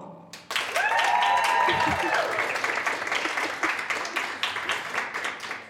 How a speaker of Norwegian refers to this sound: Så klapper dere nå!